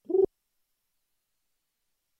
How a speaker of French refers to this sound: le bruit des pigeons qui s'affolent et qui viennent et qui vaquent à leurs occupations, ayant dans leurs petites pattes des messages remplis de secrets.